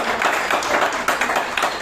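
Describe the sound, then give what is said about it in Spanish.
A crowd at a learning event applauds steadily, a dense wash of many hands clapping at once with small surges in loudness, filling the short moment without any voices on top. “Sí, te regala tu fuerte aplauso por estar acá.”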